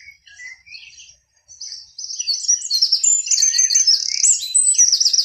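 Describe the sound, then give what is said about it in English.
Birds singing in a lively chorus, with quick high chirps and warbling trills that start sparse and build into a dense, continuous overlapping song, clear with no voices. “This is a show about birds. Their song dominates the landscape mountains, stream sides, valleys, plateaus, prairies.”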